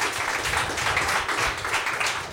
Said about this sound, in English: Big round of applause. Fantastic stuff.